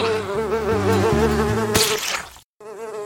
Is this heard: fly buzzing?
yes